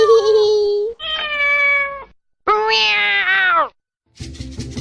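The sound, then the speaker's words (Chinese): A cat meows three times: long, drawn-out, fairly loud calls. The third meow climbs and then falls in pitch. A short burst of rough, noisy sound follows. “来来，小猫，咪咪咪咪，咪咪，让我给你梳梳头发啦！”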